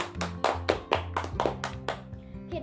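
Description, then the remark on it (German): Hands clapping, about nine sharp, evenly spaced claps in a quick steady rhythm, fading out at the end over a faint low tonal hum. “Applaus für Ravenclaw!”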